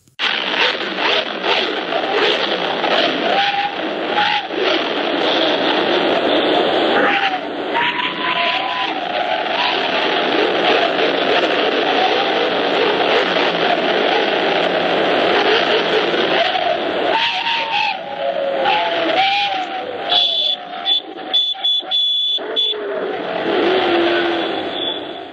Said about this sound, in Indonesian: Saudara itu tadi gemuruh motor dari pembalap MotoGP saat dilepas Presiden Joko Widodo untuk melakukan parade berkeliling kota Jakarta Rabu lalu.